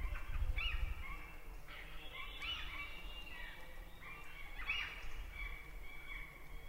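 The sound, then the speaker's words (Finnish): Gulls and thrushes call from the fields at dusk on a May evening by a shoreline birch grove, several overlapping cries and song phrases drifting over a low, steady outdoor rumble, with no one talking. “Pelloilta palavat lokit ja rastaat ovat vielä äänessä.”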